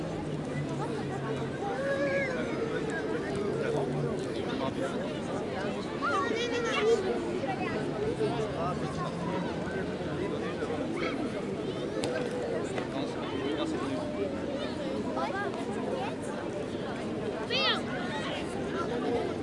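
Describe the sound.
Busy beach ambience at the Plage des Catalans in Marseille: a steady wash of overlapping crowd chatter and murmuring voices at an even, moderate level, with occasional higher calls rising briefly above the babble.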